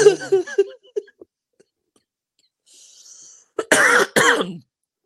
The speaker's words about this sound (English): Stop! You're gonna make me cough.